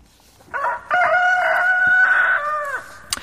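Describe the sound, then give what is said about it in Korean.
A rooster crows once, loud, a short opening note rising into a long, strained, sustained cock-a-doodle-doo that tapers off, with no talking around it; a sound effect hidden in a song. “요 닭울음소리를 여러분들 찾아주세요.”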